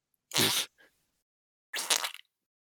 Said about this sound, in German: Und jetzt fügen wir noch hier schnell ein Furzgeräusch ein, dann ist alles super.